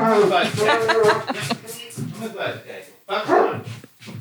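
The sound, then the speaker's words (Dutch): A dog named Deus barks repeatedly in short, loud bursts, with a few higher yips mixed in, while a person talks and chuckles over it. “Maar Oh, dat is even oh, de hond, de Deus. Die heeft even iets te vermelden.”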